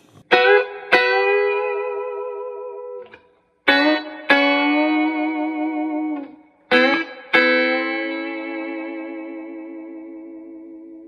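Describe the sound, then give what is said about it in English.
Twangy electric guitar rings out in three phrases, each struck twice and left to sustain, with a Bigsby tremolo bending the notes into a slow, wavering shimmer. Bright and loud, no voices. “And this really has a more of a you know bright twangy sound, and then with this really cool tremolo.”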